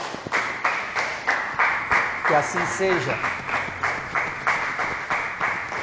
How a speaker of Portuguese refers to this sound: Vamos aplaudir o nome do Senhor.